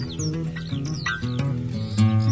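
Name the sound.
lark singing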